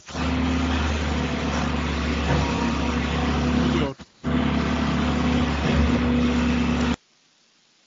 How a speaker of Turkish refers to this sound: Bu ses ne ya? Evet bir ses geldi ama kamyon geçiyor gibi bir sesti bu arada.